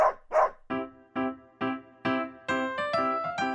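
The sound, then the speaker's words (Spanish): A dog barks repeatedly, two rough barks followed by a steady run of about seven higher, ringing yelps, with no talking. “cada perro tiene un comportamiento distinto. Algunos son más juguetones, otros son muy tranquilos, otros ladran mucho y otros son enojones y pueden morder.”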